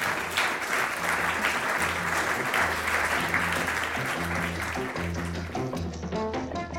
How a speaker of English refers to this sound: Let's give them a round for getting through that lightning round.